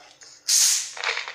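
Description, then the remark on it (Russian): A sharp burst of gas hisses out as a tightly screwed Fanta bottle cap is twisted open, a loud fizzing rush that tapers into a softer, crackling hiss, with no voices. “Ну, зато газ на месте.”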